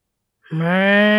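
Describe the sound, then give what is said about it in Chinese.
An Angus cow lets out a single loud, drawn-out moo after a brief silence, a steady, rich, mid-pitched call that holds until the end, with no talking. “黑色的安格斯牛们正在互相戏水玩耍。”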